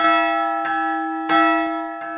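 A church bell in Řevnice, rung by pulling a hanging rope so the clapper strikes a bell that is barely swung, sounds several times in a slow, irregular rhythm, each loud clang ringing on in a sustained metallic hum.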